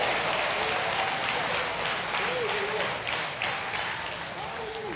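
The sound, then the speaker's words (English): A church audience claps and shouts praise to the Lord in a dense, sustained wave of applause with scattered voices calling out, loud and continuous throughout before easing slightly near the end. “Let's give the Lord a shout.”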